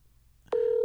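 telephone call tones

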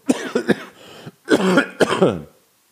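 coughing

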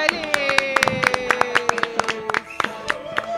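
applause

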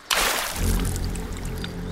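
splashing water

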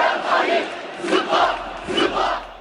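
crowd chanting protest slogans

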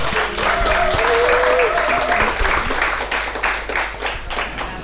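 audience applause

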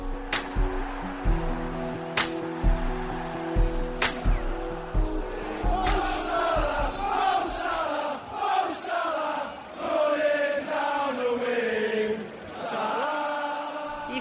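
football supporters' chant

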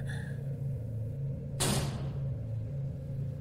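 door closing

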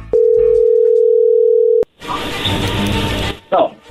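telephone call being dialed

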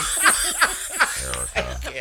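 cough

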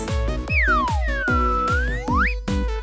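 slide whistle

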